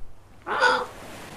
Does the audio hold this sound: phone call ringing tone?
no